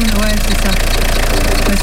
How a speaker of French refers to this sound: Éteins ton moteur.